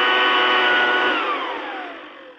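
A 200 mile per hour cordless leaf blower roars with a steady, high-pitched electric whine, then its pitch drops as it winds down toward the end.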